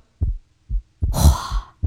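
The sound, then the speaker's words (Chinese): A rapid heartbeat sound effect played on a livestream: a run of deep, muffled low thumps in quick succession, briefly overlaid by a bright hissing swell midway, with no talking. “我的心跳的好快，咚咚咚咚咚，你们听到了吗？”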